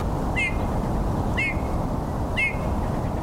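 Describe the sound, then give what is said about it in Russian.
Three short, creaky calls of a Eurasian bullfinch, like creaking old swings, ring out at an even pace about a second apart, clear, over a steady background rumble of outdoor noise. “У него голос похож на скрип старых качелей.”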